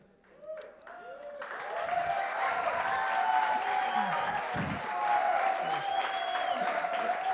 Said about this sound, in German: Ja, danke. Wenn die Stimmung schon so gut ist, kann es so weitergehen. Das wird eine gute Predigt, glaube ich, ähm, wenn ich jetzt für jedes Wort Applaus bekomme.